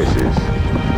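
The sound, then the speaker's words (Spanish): In a Marlboro advertisement, a dense, rumbling patter of many horses' hooves pounds the ground at a gallop as a rider herds them, loud and continuous as the herd rushes past. “Arreando caballos”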